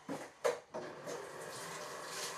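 Running water pours steadily into a pan with stuck-on food at a sink, preceded by a few quick clanks of cookware, with a continuous hiss rising slightly as it fills; moderately loud.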